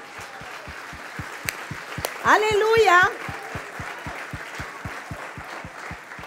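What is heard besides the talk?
audience applauding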